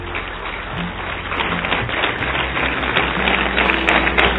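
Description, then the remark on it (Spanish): A large crowd claps loudly and continuously, giving applause to the spirit of the word, a dense wash of applause growing a little stronger toward the end with faint cheers or shouts mixed in. “Démosle un aplauso al espíritu de la palabra. Pero fuerte, fuerte, fuerte.”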